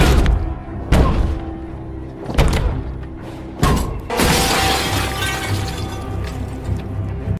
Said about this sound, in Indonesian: Dan tanpa rasa ragu, Bad pun mulai mendekati si kepala panti dan langsung mendagor-dagorkan kepalanya ke kaca jendela hingga dia tewas saat itu juga.